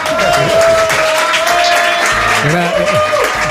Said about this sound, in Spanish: gracias a todos vosotros y gracias al público aquí reunido que nos va a despedir con una clamorosa ovación